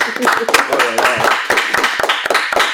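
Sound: audience applauding a guest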